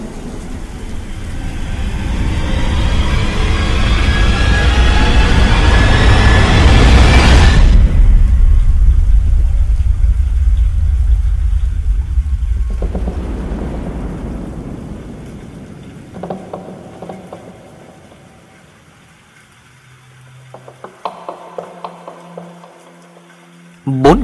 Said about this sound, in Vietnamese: một tiếng sấm lớn vang lên giữa màn đêm mưa gió